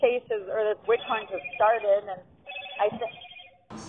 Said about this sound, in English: I apologize for that ringing phone